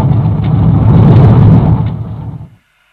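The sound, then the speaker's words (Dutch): A heavy tank engine rumbles loudly and steadily, then winds down and cuts out abruptly, leaving silence. No one speaks. “Mooi, ik zet de motor af”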